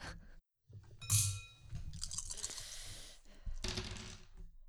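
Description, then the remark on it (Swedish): Dice clatter and tumble across a hard tabletop in a few rattling bursts with brief pauses between them, landing on two sixes. No one speaks. “Två sexor.”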